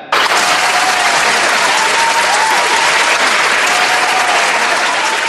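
A small group of friends claps and cheers enthusiastically at their leader's idea to go camping. The applause is a steady, dense burst with faint whoops, loud throughout before easing slightly at the end.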